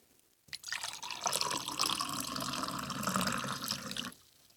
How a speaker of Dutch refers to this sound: we hebben hier twee glazen staan en die ga ik vullen. Eentje met koud water en de ander met heet water.